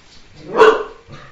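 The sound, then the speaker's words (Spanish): A single loud bark from Teo, a dog who wanted to go out, rises sharply and fades, followed by a softer, shorter yip-like sound, with faint background noise in between. “Teo quería hacer su aparición en el programa.”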